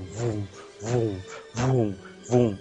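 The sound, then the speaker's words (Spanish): A voice imitates a strange buzzing hum that was heard every night for a year and a half, four pulsing droning bursts that swell and fade in a steady rhythm, fairly loud, with no other sounds around them. “que tú escuches cada noche durante año y medio unos zumbidos extraños.”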